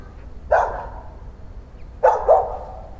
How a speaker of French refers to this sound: Tu sais, mon vieux, moi, J'aboie dès que je vois passer quelqu'un alors, je pense que je réveille tout le monde. Mais jamais à la bonne heure.